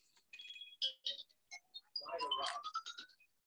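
An unmuted mobile phone rings during a recording, its ringtone chiming in a quick, bright melody of high electronic tones, rising and chirping over a few seconds at moderate volume.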